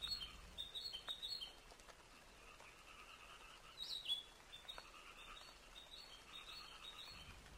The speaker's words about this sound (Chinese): 那不知道这一段虫鸣鸟叫的声音有没有让你觉得清醒一些？要是觉得好听，我们就再听一会儿。